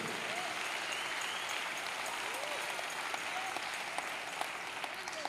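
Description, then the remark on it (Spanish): A crowd applauds steadily for several seconds, a dense wash of many hands clapping at an even, fairly loud level with a few sharper claps standing out. “Ese aplauso me le está faltando y no me están entendiendo y no me van a comprender.”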